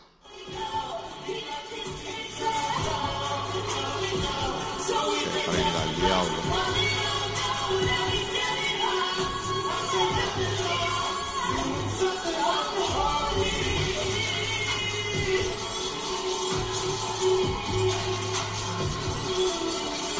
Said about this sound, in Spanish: ¿Usted escucha a la gente aplaudiendo? ¿Usted escucha a la gente gritando?